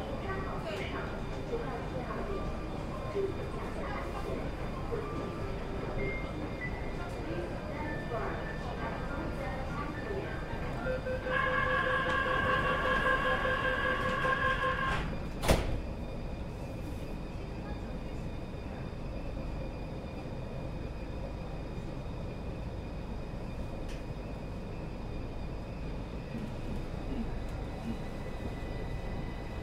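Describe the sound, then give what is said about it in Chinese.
A subway train running between Weigongcun station and National Library station (interchange with Line 9): a steady, loud rumbling roar throughout, with a bright tonal whine rising above it for a few seconds midway, ended by a sharp clack. “下一站，国家图书馆，乘客可换乘地铁九号线。”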